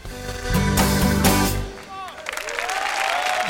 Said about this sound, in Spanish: Aplausos también para Sune y esta reflexión.